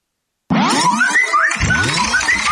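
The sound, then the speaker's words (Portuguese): A WhatsApp message notification sound plays loud after a brief silence, a bright, bouncy electronic burst of rising chirps that swells again about a second later, with no voices. “Esse é o som do WhatsApp”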